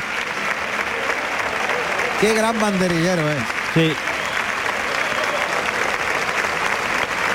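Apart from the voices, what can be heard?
bullring crowd applauding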